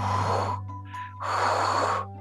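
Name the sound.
voice imitating heavy breathing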